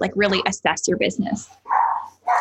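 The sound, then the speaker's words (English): A dog barks twice in short, loud bursts just after a person finishes speaking, the barks clearly separated. “Um, and so, oh, that's my dog.”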